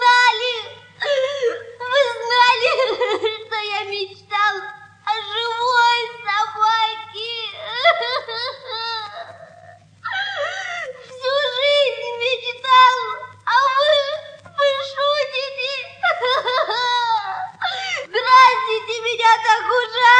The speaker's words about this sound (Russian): Он весь трясся от плача. Мама решила пойти позвонить папе, малыш заплакал еще сильнее.